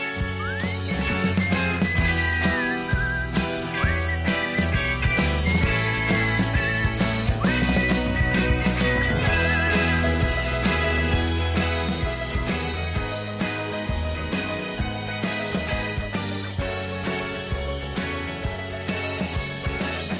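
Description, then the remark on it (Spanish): A catchy whistled melody carries the chorus of a love song, riding over a steady full band with bass and drums, loud and continuous throughout with no voices talking. “Es una declaración de de amor y pues, como lo dice el título de canción, pues, aquí viene el coro que es un silbido. Y escuchemos el silbido.”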